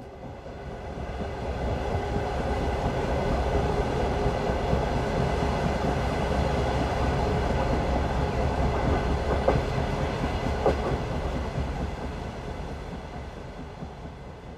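A train rolls steadily along the rails, a continuous low rumble with faint rhythmic clatter from the wheels, fairly loud throughout with no voices.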